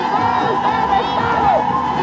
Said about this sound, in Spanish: Es un grito feminista, una promesa urgente. Alerta que camina. América Latina será toda feminista.